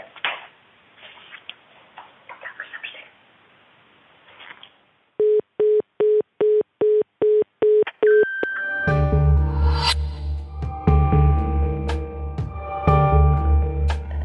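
A quick, steady run of about eight identical telephone beeps, loud, ends in a short higher tone before music begins. Faint rustling comes before the beeps.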